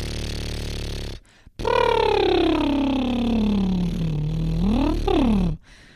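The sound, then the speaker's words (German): A person does a loud voiced lip trill into a microphone, imitating a horse snort as an extended exhale with a tone: a buzzing sound sliding in pitch from high to low, then rising briefly again, after a short breathy puff. “Und zwar, dass du wie so ein Pferdeschnaufen, ja, so.”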